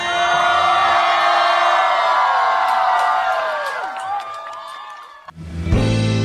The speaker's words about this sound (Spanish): Muchas gracias. Un grito bien fuerte.